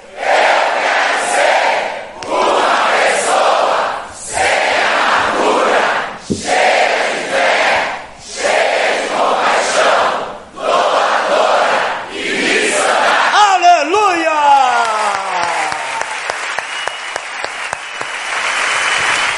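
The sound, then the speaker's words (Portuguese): A large crowd shouts together in unison on a count of "um, dois e", about seven loud, rhythmic bursts separated by brief pauses, then gives way to scattered cheering and a sliding, wavering tone. “Um, dois e. Gritado.”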